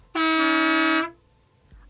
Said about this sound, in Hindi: उनको हिलता ना देख बस के ड्राइवर ने एक बार फिर जोर से हॉर्न बजाया